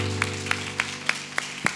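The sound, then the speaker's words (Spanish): Church audience claps together as applause to God, in a steady rhythm, six sharp, even claps about a third of a second apart, over a low, sustained musical drone, with no talking. “Fuerte aplauso a Dios por la vida”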